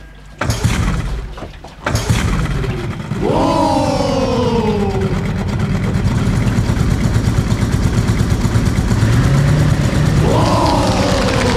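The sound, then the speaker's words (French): A couple of sharp clunks, then an engine starts up and runs steadily with a loud, continuous rumble, broken twice by descending whining tones riding over the drone. “Eh ben je m'en doutais bah, de quoi eh ben c'est encore moi qui suis de corvée de moteur”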